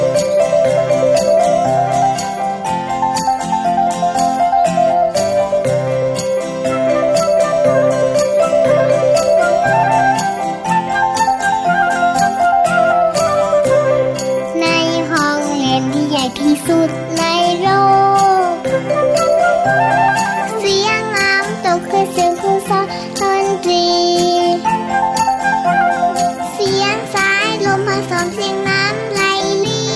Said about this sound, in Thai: ตอนนี้ฟังเพลงกันก่อน